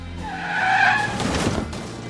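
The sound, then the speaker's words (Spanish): A car's tires screech in a loud, sustained skid, followed by a brief burst of crashing impact noise, with low engine rumble underneath throughout. “Bueno, esto termina con un golpe del coche, pero de otra forma mucho peores.”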